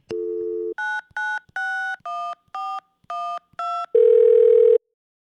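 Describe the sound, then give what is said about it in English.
A steady telephone dial tone gives way to eight quick touch-tone beeps pressed in a brisk rhythm as a call is placed, then a harsh buzzing tone briefly sounds, all clear with no one talking. “I'm going to give Mauricio Escamilla a quick call, the founder and executive creator of Mowri Audio, a full service audio, sound design, and music production studio based in Ridgewood, Queens, New York.”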